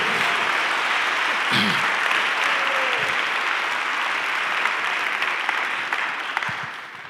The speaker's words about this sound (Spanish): Ahora sí podemos aplaudir bien.